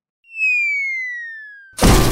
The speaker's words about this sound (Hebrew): היי, מי הפיל את הפסנתר הזה על הראש שלי? אתה?